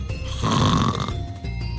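A person napping in an office chair gives a single loud, rumbling snore with a rough, buzzing rattle, rising and then fading over about a second. No voices.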